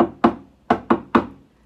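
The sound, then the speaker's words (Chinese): Four knocks on a door at night, each a sharp thud. A single knock comes first, then a short pause and three quicker ones in a row. No voices. “突然传来了这样子的声音：“那是 是什么声音啊？敲门声！”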